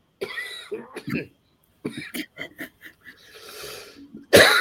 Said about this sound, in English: Sorry, man. God, I'm coughing, coughing, lost my voice, yawned earlier. It's awful.